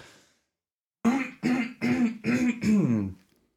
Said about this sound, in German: Ich muss mich mal gerade ein bisschen räuspern, irgendwie Frosch im Hals.